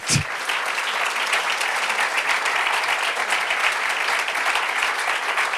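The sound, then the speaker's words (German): An audience breaks into steady, sustained applause to welcome a guest coming up to the front, a dense wash of many hands clapping at an even loudness for several seconds without letting up. “Geben dir schon mal einen Applaus zum Start.”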